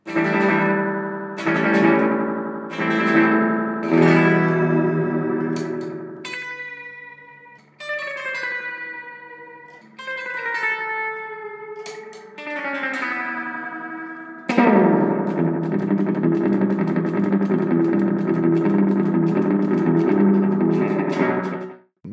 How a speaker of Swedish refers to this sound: ekot på gitarren.